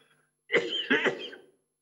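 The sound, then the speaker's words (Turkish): A short fit of coughing, two or three raspy bursts run together over about a second, heard on its own with no talking around it. “Hocam öncelikle geçmiş olsun öksürüğünüze dikkat edin.”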